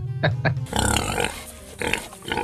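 A pig oinks and grunts in a short burst of snorts and squeals, fairly loud, with a few separate calls over about two seconds and no talking.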